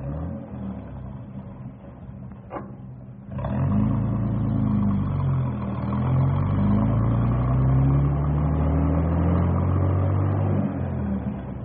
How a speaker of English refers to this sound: Well, we better get this bus rolling because it's, it's getting close to pickup time. Okay, fellas. Take off.